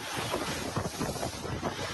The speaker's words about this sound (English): Here we had about a four hour stretch of 40 plus mile an hour winds.